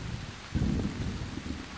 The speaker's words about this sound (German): So sehr der scharfe, kalte Regen auch wehtut, er lindert zumindest die Pein der vielen Mückenstiche. Beziehungsweise überlagert das Stechen der kleinen Tropfen das lästige Jucken.